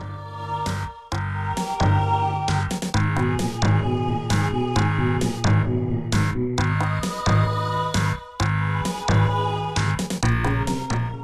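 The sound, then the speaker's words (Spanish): Ominous background music from a video game's vegetation-filled, enemy-heavy area, with dark sustained low notes layered under repeating tones and heavy percussive hits, playing loudly and continuously for the whole stretch with no voices. “tiene un toque de maldad, ¿no? Que lo dan estas notas que suenan de fondo.”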